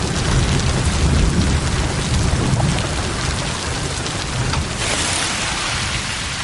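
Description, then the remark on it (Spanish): Heavy rain pours steadily and loudly at night, a dense continuous hiss with a deep low rumble underneath, unbroken for the whole stretch with no voices. “De noche... ...llueve con mucha fuerza.”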